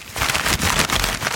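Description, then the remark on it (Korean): Dry, crackling rustle of folded paper slips, each with a prize written on it, being stirred inside a hat for a random prize draw on a live KBS Cool FM radio show, continuous with irregular crinkly bursts, no voices. “이 종이가 들리죠? 이 종이가 접혀 있는 종이기 때문에 안에 뭐가 써 있는지는 저희도 모릅니다.”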